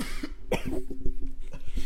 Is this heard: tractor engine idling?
no